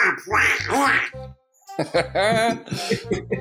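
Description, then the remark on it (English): A person does a raspy, garbled Donald Duck voice, imitating the cartoon duck as a rapper, quacking out a burst of mock speech, pausing briefly, then launching into another fast, nasal quacking run. “Well, since he's a duck, I would think he'd rap about the water.”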